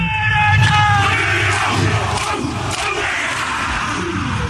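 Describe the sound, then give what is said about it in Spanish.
The New Zealand All Blacks rugby team chant and shout a haka in forceful unison before the opening match against France, deep rhythmic bellowed calls rising over a loud, steady roar from a large crowd. “Así que esta noche escucharemos la famosa jaca.”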